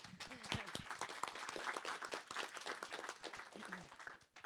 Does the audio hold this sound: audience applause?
yes